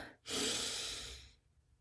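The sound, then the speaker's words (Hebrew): A single deep, steady inhale drawn through the nose as part of a calming deep-breathing exercise, a soft airy hiss lasting about a second, with no talking. “נשימה עמוקה זה אומר שאני לוקחת מהאף,”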